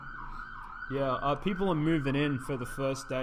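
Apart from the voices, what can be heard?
emergency vehicle siren outside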